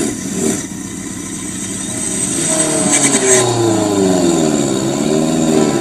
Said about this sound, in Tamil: மேலும் இரண்டு அதிவேக பைக்குகள் வந்து நின்றன